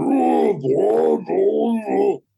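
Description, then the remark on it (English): A person imitates a deep, demonic groan in low, drawn-out bursts, mimicking the deep demonic voice of the possessed daughter, Regan, in a film scene where the bed goes up and down. The rasping tones rise and fall over about two seconds before stopping abruptly. “the daughter in the deep demonic voice of the bed going up and down.”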